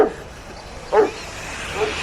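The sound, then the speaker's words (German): A dog on a leash barks three times at uneven intervals while pulling a man along behind it, the middle bark loudest, over a steady background hiss with no talking. “Der Hund zieht ihn hinter sich her.”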